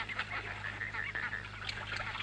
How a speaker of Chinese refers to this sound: 天鹅，那不就是天鹅吗？